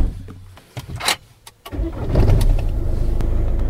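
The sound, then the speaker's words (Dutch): A car engine cranks and catches after a few short clicks and bursts, then settles into a steady, loud low idle rumble with no talking, as the car leaves the Houtzagen en Keizer livery stable. “En stappen we nu de auto in, gaan we weer afscheid nemen.”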